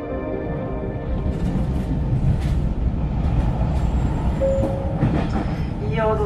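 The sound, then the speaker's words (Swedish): Steady low rumble and rattle of SJ high-speed passenger train number 427 in motion toward Gothenburg, with a continuous loud roar, faint rhythmic clatter and brief high-pitched squeals and tones near the end. “vill vi hälsa alla varmt välkomna ombord på detta SJ snabbtåg nummer 427 som ska ta oss ner mot Göteborg.”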